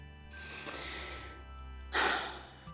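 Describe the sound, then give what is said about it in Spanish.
A deep, airy breath drawn in slowly, then pushed out in a shorter, louder exhale, alone with no talking. “Vuelvo a respirar profundamente Vamos, quiero escuchar fuerte esa respiración profunda.”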